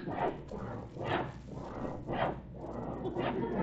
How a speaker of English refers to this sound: is that someone sawing wood? Sawing wood, Alice. Well, well, well. Thought I heard a saw.